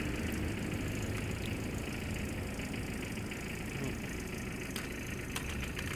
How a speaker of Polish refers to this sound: Jakby samochód czekał.